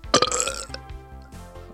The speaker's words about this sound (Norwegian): sist, men ikke minst, rap med stolthet.